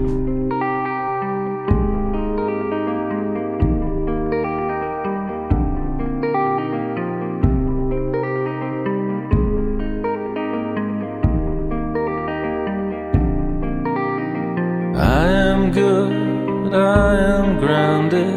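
An indie rock recording plays with no singing: a steady, repeating chord pattern over a deep bass, with echoing guitar tones, turning brighter and busier near the end.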